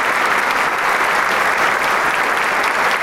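Sustained, dense applause from a concert audience after a soloist's performance, with the conductor also applauding, many hands clapping at once into a steady, loud wash of sound with no pauses and no voices rising above it.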